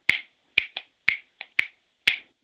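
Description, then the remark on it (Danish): Crisp finger snaps demonstrating a polyrhythm, clear with no talking: a steady beat of louder snaps about every half second, with a couple of softer snaps slipped in between to form an uneven rhythm. “Og jeg blev ved med at prøve at knipse det for ham, men han fatter det bare ikke.”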